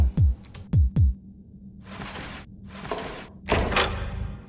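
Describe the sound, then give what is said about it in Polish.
In an audio game, three dull, heavy door thuds land in quick succession as a door leading back to the lobby is found, each a low thump with a sharp edge, followed by a few longer hissing, whooshing bursts. No one speaks. “I found the door. It leads back to the lobby.”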